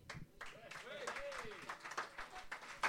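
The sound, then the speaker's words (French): A crowd applauds with dense, steady clapping that carries on throughout, mixed with a few rising and falling cheers or whoops over the top. “Merci la foule enthousiaste.”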